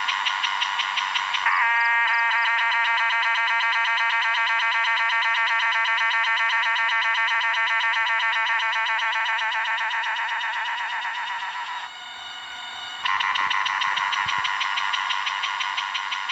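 A male cicada sings loudly, a harsh, steady buzz made by the cymbals at the base of its abdomen, opening and closing with rapid pulsing and dipping briefly near the end. No voices are heard.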